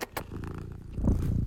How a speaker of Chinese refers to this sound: 我的小猫咪现在来了，它开始 purr 了，好可爱。